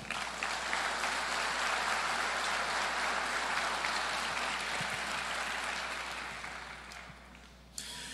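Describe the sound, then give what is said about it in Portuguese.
An audience applauds the Lord after a prayer, in a dense, steady wash of clapping that holds for several seconds, then thins and fades out near the end, with no voices standing out. “Aplauda o Senhor.”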